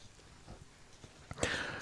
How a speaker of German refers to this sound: Die beiden stiegen wieder auf ihre Pferde und trotteten weiter die Straße entlang.